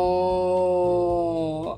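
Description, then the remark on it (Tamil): A voice imitates a cow's moo: one long, steady, low droning tone held for nearly two seconds, fairly loud and sliding slightly at the end. “அப்படின்னு மாடு வர ஆரம்பிச்சது”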